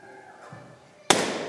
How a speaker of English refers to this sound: You don't mind loud noises? Because let's have this balloon burst. Can you do it?